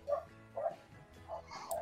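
Several short, sharp dog barks in quick bursts, moderately loud, with brief pauses between them and a faint background hum.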